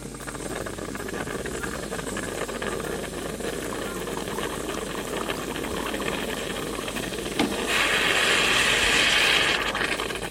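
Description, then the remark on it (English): An espresso machine pushes hot water through freshly ground coffee with a steady mechanical hum and gurgle, then a louder, brighter hiss of steam bursts in near the end. No one speaks. “Mm, that is the sound of hot water being pushed through freshly ground coffee, which eventually leads to the pouring of coffee and then the drinking of coffee.”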